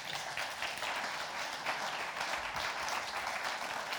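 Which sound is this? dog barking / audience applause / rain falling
audience applause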